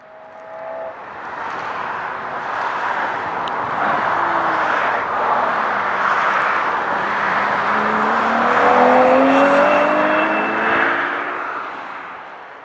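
A race car engine roars steadily during testing on the Ferrari circuit at Fiorano, its pitch rising and falling as it revs and shifts, with a broad rushing intake noise and a swell near the end.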